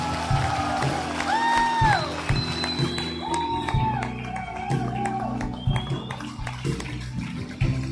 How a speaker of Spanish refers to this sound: Vamos, a alguien que le dé un aplauso fuerte a Dios acá.